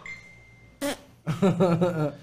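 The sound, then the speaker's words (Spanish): A short burst of noise followed by a buzzing, vibrating vocal sound, a person's voice imitating a fart, fairly loud, lasting about a second. “Como que trae un radar busca mis pedos, güey. Y por más que me lo escuches, lo avienta así como de.”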